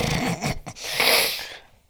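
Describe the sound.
A voice imitates a record scratch: a short pitched vocal slide, then a harsh, breathy rasping sweep that fades out, fairly loud, with no other talking.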